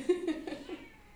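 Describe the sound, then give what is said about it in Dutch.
A cat with a toy beaver in its mouth gives a muffled, wavering meow, slightly stifled and nasal, tapering off over about a second with no one speaking. “Die kat die zit met die bever in zijn mond. Man. Ja, nou hoor je wel echt heel goed.”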